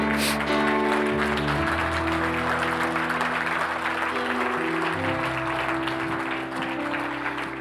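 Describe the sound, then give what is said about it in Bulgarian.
An audience in a church claps steadily and densely for several seconds, the crowded patter staying loud and even over sustained musical tones underneath, with no voices standing out. “Как да пляскам по-добре?”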